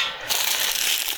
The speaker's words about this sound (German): Die Plätzchen machen wir auf. So.